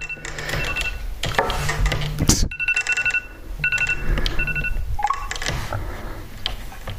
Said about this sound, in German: Wecker ausgeschaltet, Mensch. Naja. Da frage ich mich wirklich, welcher Wecker noch an ist. Ach, Handy, du bist so bescheuert.